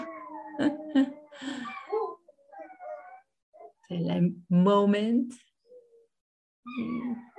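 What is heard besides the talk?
fox howling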